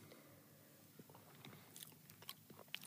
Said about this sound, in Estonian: see matsutamine, mis on see kõige, kõige vastikum hääl.